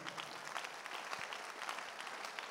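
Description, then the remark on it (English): An audience claps for Jesus together in a dense, steady wash of many overlapping hand claps, moderately loud and continuous throughout, with a faint murmur of voices underneath. “I didn't ask you to clap, but if I clap and clap for Jesus.”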